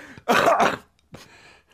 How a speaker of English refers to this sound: oh my word! God, well, genuinely, I coughed from like that was from the bottom of my back. That cough. Yeah, man. Sorry, that, that, was probably horrible for you to hear. It sounded like you had your finger on the dump button.